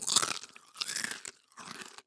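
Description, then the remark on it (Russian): Someone chewing a zefir marshmallow, three moist, crunchy bursts of mastication in a steady rhythm, fairly loud with short pauses between bites and no talking. “– крикнул ей вслед вдогонку Дед Мороз и сживал еще одну зефирку.”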